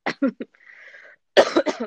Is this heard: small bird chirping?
no